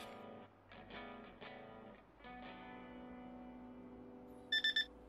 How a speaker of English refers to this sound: Whoa, boss! I'm getting another weird message! It's a call of some kind, but the readings are all wobbly